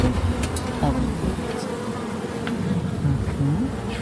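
A steady, dense drone of many honeybees buzzing during a beehive inspection at an apiary, with wavering low pitched hums rising and falling as individual bees pass, continuous throughout with no talking.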